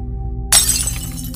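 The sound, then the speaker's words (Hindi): Light bulbs burst in a hostel as the lights flicker: a sudden burst of shattering glass cuts in over a low droning hum, a bright crash followed by scattered tinkling fragments that quickly settle. “जब सारे इकट्ठे थे तो वहां की लाइट झपकने लगी कुछ बल्ब फूटने लगे”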